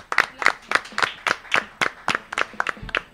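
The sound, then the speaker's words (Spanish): A short burst of applause for the doctor: about a dozen sharp, evenly spaced claps in a steady, brisk rhythm, fairly loud and with no voices over them. “Aplauso a la doctora.”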